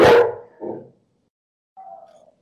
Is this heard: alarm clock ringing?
no